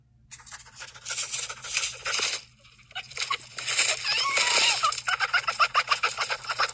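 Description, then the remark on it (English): A pet fox gives excited, laugh-like chattering after running off with a phone in its mouth, a fast stream of shrill cackling bursts, breaking off briefly before starting up again, with no talking over it. “you can hear Dixie the fox laughing, literally laughing at her”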